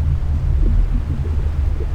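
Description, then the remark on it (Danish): A large waterfall on top of a hospital tower, whose water is used to cool the air in the hospital's huge ventilation system, roars steadily: a deep, continuous rushing rumble with no breaks or voices, fairly loud throughout. “Hele hospitalet ånder igennem et stort vandfald på toppen af tårnet foran dig.”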